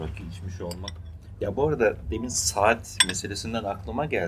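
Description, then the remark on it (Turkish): Dishes and cutlery clink in a busy tavern as beers and rakı are carried around, a steady clatter of plates and silverware under conversation, with a few sharper clinks standing out midway. “İşte biralar taşınıyor, rakılar taşınıyor, bir kuryeler taraftan bir şeyler açıyor”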